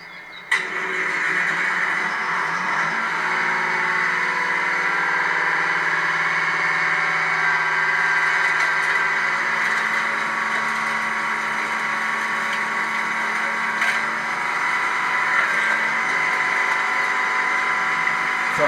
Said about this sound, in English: she's crushing a car in a junkyard currently, for those of you that are not watching but can hear the noise.